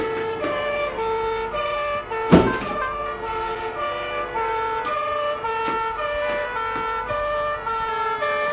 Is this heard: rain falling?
no